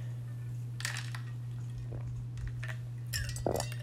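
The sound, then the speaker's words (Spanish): A glass clinks lightly a few times while someone drinks water, with soft sips and handling noises over a steady low electrical hum; no one speaks. “Otro break de agua.”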